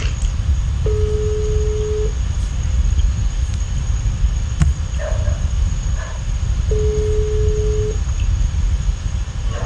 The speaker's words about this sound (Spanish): Estamos esperando. ¿Se escucha el repique de la llamada? Yo escucho.